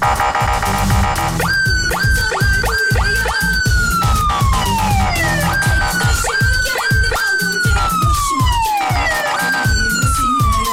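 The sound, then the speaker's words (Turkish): A loud police siren cycles through quick rising yelps and long, slowly falling wails, repeating over and over above a steady, thumping rhythmic background, with no one talking. “Emniyet şeridini gereksiz yere işgal eden bu arkadaşa bir siren alabilir bakayım.”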